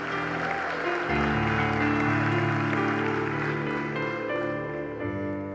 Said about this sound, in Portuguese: Dê um aplauso a Ele. Dê um grito de glória a Deus aí.